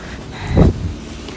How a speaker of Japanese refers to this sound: えー、っと、今、仕事帰りで歩きながら撮ってるので、ちょっといろんな音が今、早速車が横を通りますけど、